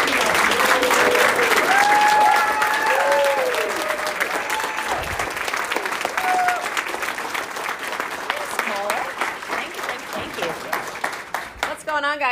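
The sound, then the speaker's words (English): An audience applauds and cheers, with dense clapping and several whooping voices rising over it at first, then the ovation gradually thins and fades toward the end. “Ladies and gentlemen, get up out of your seat, make some noise”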